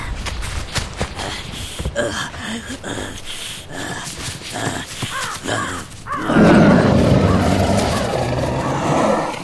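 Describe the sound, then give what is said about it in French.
Heavy, rapid thudding footsteps of a sabre-toothed cat charging at speed at its prey, a prehistoric animal resembling a mix of horse and camel, followed by a loud, rough growling roar that swells and holds to the end. “Le tigre fonce à une vitesse impressionnante, malgré la lourdeur de ses pas.”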